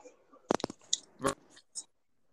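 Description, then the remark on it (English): Crunching Honey Smacks breakfast cereal: a few sharp, crackly bites, two quick ones then a louder crunch, with softer chewing noises between and a faint trailing crunch, fairly quiet overall and with no talking. “So we got um, just you could everyone heard Honey Smacks.”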